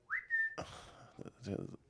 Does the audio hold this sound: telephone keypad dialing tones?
no